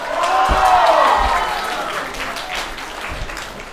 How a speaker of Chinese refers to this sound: 所以呢，今天也请来了三位非常对剧场演出非常沉迷的三位大家也非常喜欢的演员，我们掌声有请杨丽、海源、胡兰。